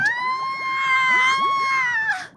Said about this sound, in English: Just as Sam was looking around to try and see who Lophiiformes was, a very scary looking anglerfish with a bioluminescent bulb hanging just in front of a mouth full of very sharp teeth appeared. Sam screamed.